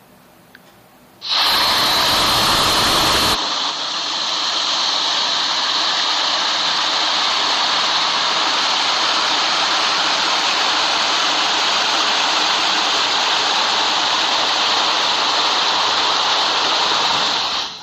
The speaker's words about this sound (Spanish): Y precisamente nos mandó este video donde se escucha una como cascadita y un arroyo ahí en el Cerro del Gigante. Vamos a escuchar.